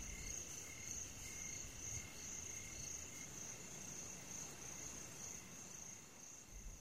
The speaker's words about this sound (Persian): جیرجیرکی توی سقف نگهبانی میداد